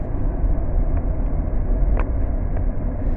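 Steady low rumble of a car rolling along a road, heard as continuous engine and tire noise from inside the vehicle, with a few faint ticks and no talking.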